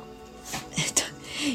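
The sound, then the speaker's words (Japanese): A pet dog coughs: two or three short, rough, breathy hacks in quick succession, moderately quiet, followed by a brief faint whine-like tone. “あのうちのワンコがちょっと咳き込んでいました”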